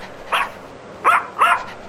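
A female pet dog named Peluche barks three times in short, sharp bursts, the first alone and the last two closer together, with no voices present.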